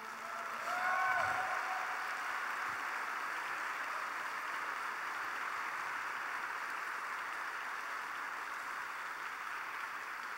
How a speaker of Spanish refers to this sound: Vamos, si vas a aplaudirle, apláudele.